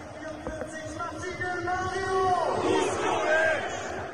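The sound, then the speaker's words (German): A stadium crowd in the Volksparkstadion roars and cheers continuously for an appearance by Vuskovic, with many voices chanting and shouting in a dense, rising wall of sound that swells loudest toward the end. “Und zwar äh, hat er gesagt, in der Rückrunde wird Vuskovic freigesprochen und er bekommt noch einen Einsatz im Volksparkstadion und das würde dann so klingen.”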